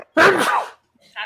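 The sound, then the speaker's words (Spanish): A single sharp sneeze bursts out, loud and abrupt, fading within half a second, followed by a brief quiet and the start of a voice. “Salud. Gracias.”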